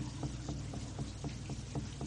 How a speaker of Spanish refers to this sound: Pregúntate a ti misma y deja que el canto del río te hable.